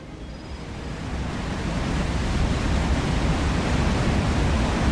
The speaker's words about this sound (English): That's me standing at the top of a waterfall. At least you can hear that.